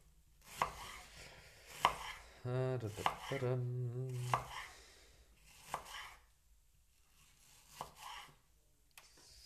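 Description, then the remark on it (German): A knife cuts a vegetable half, its tip and stem end trimmed off, into thin half-moons or rings on a cutting board, with crisp slicing strokes spaced out every second or two, and a brief squeaky, tonal rubbing sound partway through. “Und dann schneiden wir dünne Halbmonde oder Ringe, wie du es nennen möchtest, runter.”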